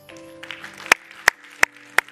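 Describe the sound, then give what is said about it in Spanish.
Four sharp, evenly spaced hand claps, given as applause to the Holy Spirit, ring out in a steady beat over sustained, held musical tones, with no voices speaking. “Y si tienes algo que agradecerle al Espíritu Santo de Dios, le demos un aplauso a Él.”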